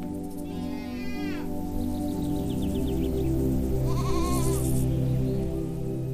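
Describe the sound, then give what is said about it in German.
Several goats coming out of a wooden shed beside an uphill path among olive trees bleat in wavering, nasal calls, one around the first second and another near the fourth, over a steady low hum of background noise. “Er führt dich bergauf vorbei an einem Holzverschlag, aus dem dir einige Ziegen entgegenkommen und dich neugierig anmeckern.”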